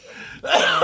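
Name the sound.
coughing fit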